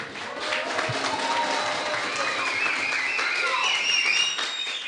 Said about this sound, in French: nous sommes en public dans la salle des délibérations. Il y a beaucoup de monde. Est-ce que vous pouvez faire un peu de bruit le public pour que les auditeurs vous entendent